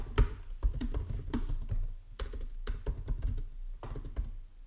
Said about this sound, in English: I'm gonna Google it. You get to hear me type on my fresh new MacBook Pro keys. They're pretty touchy.